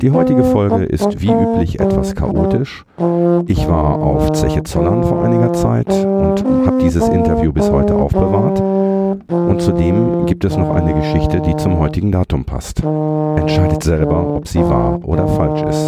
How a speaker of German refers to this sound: Das Intro, was ihr hört, ist mir von einem Hörer zugespielt worden. Er hat es für mich auf einem Tenorhorn eingespielt